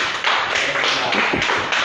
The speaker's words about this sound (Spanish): Un fuerte aplauso para FIMAX también.